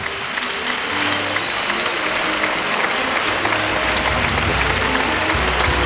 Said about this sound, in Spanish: Ovación para el toro.